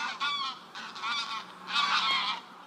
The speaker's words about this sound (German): Von hier strebe ich dem Ibner Moor zu, Österreichs größter zusammenhängender Moorlandschaft. Ein Schwarm Graugänse zieht in keilförmiger Formation über mich hinweg, sonst ist es still.